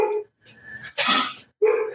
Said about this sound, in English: My dog is going nuts upstairs